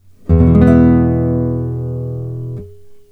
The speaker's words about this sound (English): If you aren't sure what temperament is, the most frequent experience I have with it as a guitarist is when one of my students has tuned to a chord, for instance, an E chord like this one.